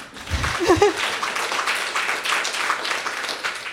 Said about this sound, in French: Barbada. Barbada. Oui, applaudissons Barbada.